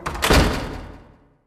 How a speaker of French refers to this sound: Les battants se refermèrent sur lui.